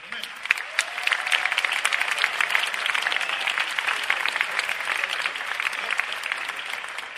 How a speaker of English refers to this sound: Well, first of all, this year's special mention goes to Funcom, for their ambition, dedication, and resolve to strive to make Age of Conan the best online role-playing game in the world. And let's give them an applause for